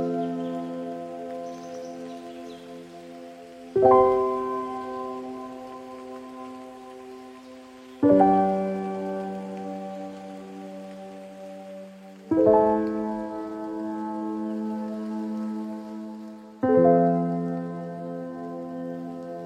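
A slow, calm instrumental song with sustained chords struck roughly every four seconds, each ringing out and fading, over a soft, steady rain-like hiss. No one speaks.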